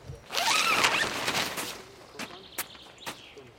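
A tent zipper is pulled open in one long rasping stroke, followed by a few soft clicks and fabric rustles as it settles. No voices are heard.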